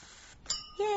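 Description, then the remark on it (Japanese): Two glasses clink together in a toast. A bright, high-pitched ring comes first, then a second, lower-toned chime that sustains. Both are fairly loud, with no talking. “イェーイ、乾杯何に乾杯かわかんないけどさ。”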